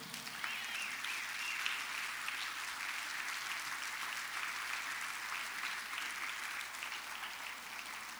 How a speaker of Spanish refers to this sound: denle un fuerte aplauso a Jesucristo